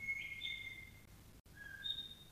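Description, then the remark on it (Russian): A nightingale sings in a couple of clear, sustained whistling phrases, high and fairly faint, separated by a brief pause, over a soft, steady background hum with no one speaking. “Соловей запел.”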